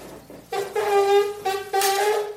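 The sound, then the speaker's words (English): A girl takes a big breath and buzzes her lips into a trombone mouthpiece, making two loud, reedy, horn-like tones at a steady mid pitch. The first lasts about a second; after a short gap, a second buzz follows. “Now, to do that, you need to take a big breath, put your lips together like you're going to kiss somebody, and you blow.”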